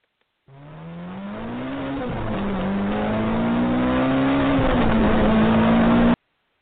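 A car engine starts up and accelerates at the Denver airport, its low growl rising in pitch and swelling steadily louder as the vehicle pulls away, continuous with no voices.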